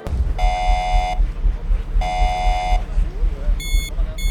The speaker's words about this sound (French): Bon, il y a, le bruit de l'alarme qui est un bruit assez strident, puisque ce bruit doit pouvoir vous réveiller en pleine nuit euh, pour permettre à tout l'équipage de se préparer au retour.